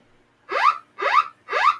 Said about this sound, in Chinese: 因为这个紧急地震速报的系统呢，刚才有提到，如果你的手机有开启通知的话，呃，如果地震是发生在半夜的话，它会有下面这个声音。